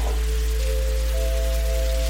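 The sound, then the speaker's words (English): A steady hiss of wind-blown sand whipping and swirling, filling the background evenly, with a low sustained drone humming beneath it and no voices. “the sand into the air. Feel it whip and swirl around you now.”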